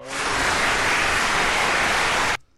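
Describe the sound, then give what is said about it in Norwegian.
A dense, steady wash of clapping-like noise, an applause sound effect played by a radio technician, that sounds much like a rain shower, holding at an even loud level for about two seconds before cutting off abruptly. “Var det applaus, eller var det regnskur?”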